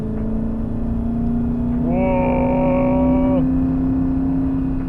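A BMW 7 Series E38 car engine drones steadily and climbs slowly in pitch as the car accelerates, with a brief strained whine swelling in the middle. The sound is continuous, with no voices.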